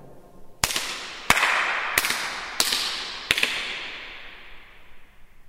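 Five sharp hand claps, spaced evenly about two-thirds of a second apart, each ringing out into a long, bright reverberation that lingers and blends between claps, in the large main hall of a synagogue built around 1928.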